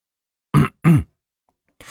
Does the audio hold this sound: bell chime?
no